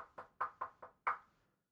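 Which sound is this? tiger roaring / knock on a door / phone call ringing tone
knock on a door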